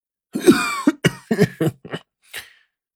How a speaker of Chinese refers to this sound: 里面的人咳嗽了几声，声音啊却是异常的熟悉。